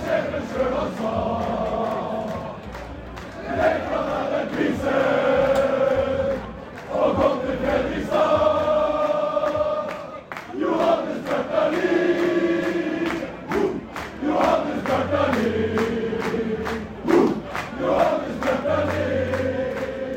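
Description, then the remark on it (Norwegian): A large crowd cheers and chants loudly for about twenty seconds as Fredrikstad player Johannes Bjartaloy is celebrated as OBOS-ligaen player of the year, voices rising and falling in sustained, sung waves of sound with shouts mixed in. “Og vi kan bare høre Obos. på åssen det var i går når han ble hylla.”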